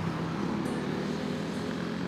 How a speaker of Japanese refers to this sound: 車の音もありつつうるさいとは思うんですけれど、まあ、これもちょっと情緒的なものだと自分は思って聞いていますが。